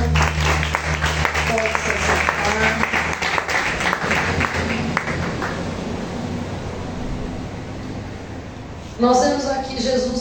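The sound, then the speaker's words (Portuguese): An audience at a church service applauds the Lord in a dense, sustained wash of clapping that gradually thins and fades over several seconds before a single voice begins speaking near the end. “Aplauda ao Senhor.”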